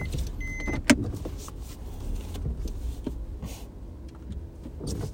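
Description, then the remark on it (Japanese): A car with a low rumble and a brief mechanical whir like a power window, plus a sharp click near the start, with a neighbor sitting inside it; no one speaks. “あ、めっちゃ車、隣人いたわ、中に。”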